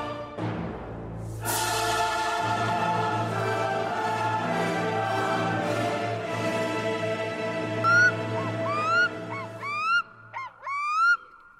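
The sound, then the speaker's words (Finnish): A black-throated loon calls alone, loud: long, mournful wailing notes rich in overtones, then several quick rising, yodel-like swoops near the end. “featuring Kuik Kuikka. Kuka? Kuikka.”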